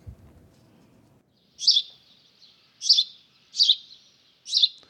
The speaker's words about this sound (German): Ja, den kennt jeder, das ist der Haussperling. Also der Spatz. Äh, die meisten Menschen sagen Spatzen dazu, äh, aber die richtige Bezeichnung ist Haussperling.